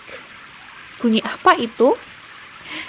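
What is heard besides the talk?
rain falling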